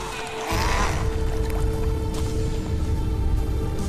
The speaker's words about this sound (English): On the weekend, I took this letter to President Putin to Narva, strapped it to this remote control boat, and tried to send that letter across the river Narva.